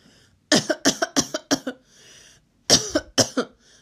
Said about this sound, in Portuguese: Que quer? perguntou, examinando a triste mendiga suja de lama a tossir.